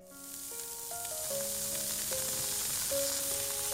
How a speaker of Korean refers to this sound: 야, 근데 형님 어쩜 고기를 그렇게 잘 구워요? 진짜 완전 고급 인력이야. 고기 잘 굽는 고급 인력.